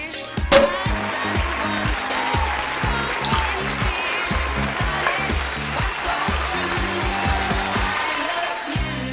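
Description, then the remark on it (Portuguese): A champagne bottle, long kept in the refrigerator, pops open with a single sharp burst near the start, then a steady foamy fizz and hiss continues over rhythmic background music. “Então bora estourar esse champanhe que tava guardado na geladeira há tanto tempo.”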